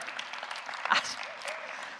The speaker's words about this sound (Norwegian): Sånn litt liten applaus for det med den badingen, men OK.